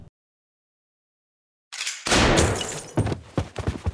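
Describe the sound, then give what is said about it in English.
After a brief silence, a loud gunshot sound effect bursts out, followed by several more sharp bangs in quick, uneven succession, like a short volley of gunfire. “pulled out his gun and shot the man dead”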